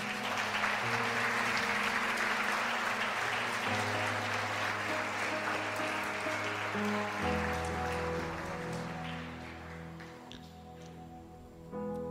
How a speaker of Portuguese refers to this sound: Bem, você pode aplaudir o Senhor pela vida dessas pessoas?